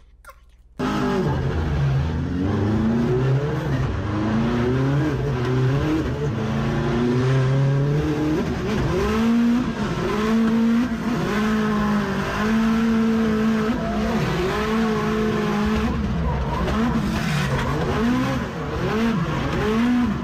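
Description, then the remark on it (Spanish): A race car engine heard from onboard the car during a race, loud for about twenty seconds, its pitch repeatedly climbing and dropping through gear changes and throttle lifts, with no voices. “Y el video que lo voy a pasar al onboard, tuve viendo dentro del carro tirando gritos”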